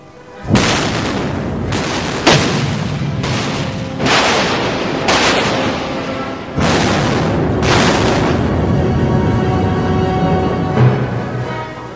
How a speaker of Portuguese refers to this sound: Então, uma sequência de disparos dos navios ingleses atingiram Gravesby acima da linha d'água, abrindo um enorme rombo no casco.